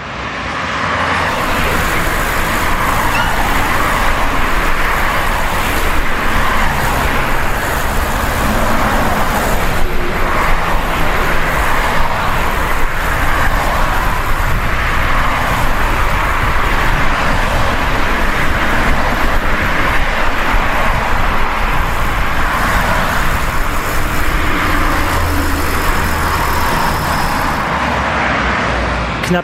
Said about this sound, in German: Ich stehe jetzt hier im verkehrsumtosten Zentrum von Buchenau. Die paar Kilometer von Ottensheim hierher entlang der stark befahrenen B127, die waren wirklich wie immer nicht besonders lustig.